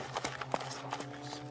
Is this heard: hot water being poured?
no